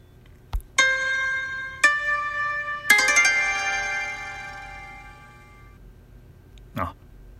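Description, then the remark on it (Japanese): A bright electronic entry chime plays three rising bell-like tones in quick succession, the last one ringing out and fading slowly, with a soft click before and a brief knock afterward. “あの和食レストラン佐藤の、えー、自動ドアを入り口のね自動ドアを開いた瞬間に流れる音みたいななんかそういう感じでしたね”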